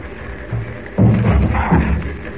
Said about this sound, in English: Now, here's the hall. Three doors leading off it. Have to try them all. Kick the doors in. Here goes.